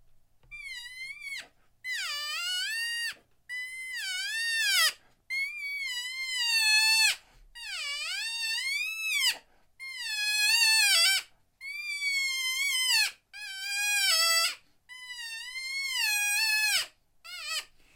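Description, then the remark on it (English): A game call with its rubber bell removed imitates the whining of sparring bulls: a string of about nine nasal, wavering whines, each a second or two long, fairly loud, with brief pauses between them and no talking. “Now, again, I use it very specifically to imitate when bulls are sparring.”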